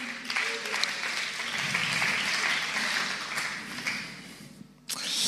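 A crowd applauds steadily for about five seconds, a dense wash of clapping at even loudness that cuts off abruptly near the end before a brief burst resumes.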